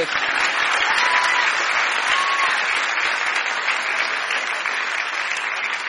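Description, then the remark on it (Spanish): Steady, dense applause from a sizable audience answering a call to applaud for those from Argentina's interior, many hands clapping together at an even loudness for several seconds with no voices standing out. “Ah, aplauda del interior del país.”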